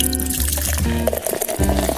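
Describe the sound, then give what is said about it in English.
A drink is poured steadily into a glass, the gurgling splash rising in pitch as the glass fills, with a brief pause midway before the pour resumes. No one speaks. “So kick your feet up, pour your favorite drink,”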